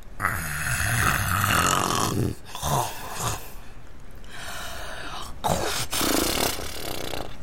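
Loud, rumbling snoring in a six-bed hospital ward repeats in long, heavy breaths, each pass a rough, raspy drone with brief pauses between; forceful, with no talking.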